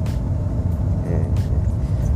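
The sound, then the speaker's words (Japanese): A dump truck, marked with an H and probably made by Hino Motors, drives along the road. Its heavy engine drones steadily as it drives past, a loud, continuous low rumble with a rough texture and faint higher road noise layered on top. “とりあえず自分の目の前を走る車のことについて話そうかなと思っておりますで今日はですね今僕の目の前を走ってるのが実はダンプカーなんですね、”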